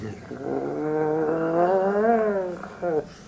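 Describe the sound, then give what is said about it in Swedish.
A person imitates a cat, producing a drawn-out, wavering yowl that rises and falls for about two and a half seconds, followed by a brief second yowl, clear. “Du vet, katter kan ge ifrån sig ett sånt här...”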